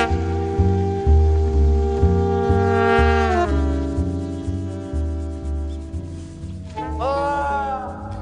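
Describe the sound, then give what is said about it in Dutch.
A seal on the Wadden Sea mudflats wails in long, drawn-out cries that rise and fall in pitch, loud, over a steady low droning background with no one speaking. “U hoort een huilende zeehond op het wat.”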